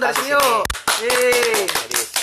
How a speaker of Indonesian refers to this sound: Untuk para petugas medis, semangat, semangat, semangat terus, semangat. Kita, kita ngedukung. Tepuk tangan